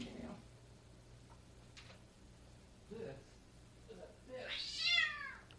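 A cat named Meow lets out one clear, drawn-out meow near the end, fairly loud, after a few soft, faint sounds over a low steady background hum.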